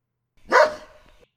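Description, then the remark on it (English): A single sharp, fairly loud dog bark rings out, then fades quickly into a brief tail. Nothing else is heard around it. “I barked for no reason.”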